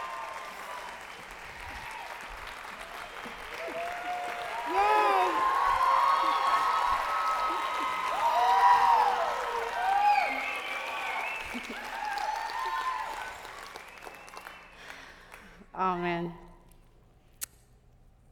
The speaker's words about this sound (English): Okay, so I'm excited. I want you to give a big round of applause to my dear friend